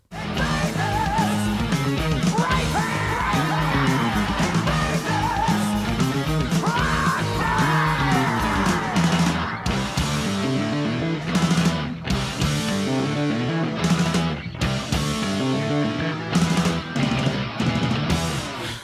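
Loud, dense heavy metal at full tilt: a wailing, yelled vocal over thick distorted guitars and a busy, rumbling bass, breaking into a flurry of hard, crashing hits as the song drives to its finish.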